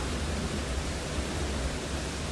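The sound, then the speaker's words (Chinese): Strong wind of Typhoon Haikui roars in a dense, unbroken rush of noise, holding a fairly steady loudness with only slight surges and no voices. “趁著海葵颱風還沒完全離境，一早就在很大的風聲中錄下這一個單元”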